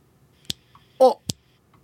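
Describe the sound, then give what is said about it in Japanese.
A person who cannot snap well attempts finger snaps: two dull, weak snaps, about a second apart, with a brief voiced sound between them and otherwise near silence. “あでもなんかこう体使って音鳴らすのとか苦手なんですよ指パッチンとかもできなくて音鳴らないならこんな感じです”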